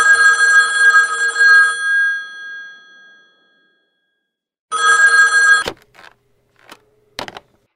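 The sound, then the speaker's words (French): An old-fashioned telephone bell rings loudly in two bursts separated by a pause, the second cut short by the clatter of the receiver being lifted, followed by faint clicks. “C'est son beau-père qui décroche le téléphone ce jour-là.”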